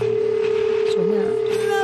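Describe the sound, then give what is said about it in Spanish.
A steady electronic telephone tone from an incoming call hums continuously throughout, coming through a presenter's channel during a live show, with faint background chatter and a wavering pitch underneath. “Ah, espera, me está A ver, Carlos, me están diciendo que entra por tu canal esta llamada.”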